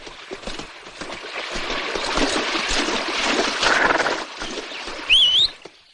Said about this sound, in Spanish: Mientras, un jinete con una camisa roja se abre paso por el campo entre unos matorrales.